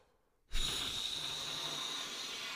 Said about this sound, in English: And and when I do it on the on the mouthpiece and it's not buzzing, right? Okay. And when I do it, and when I do that,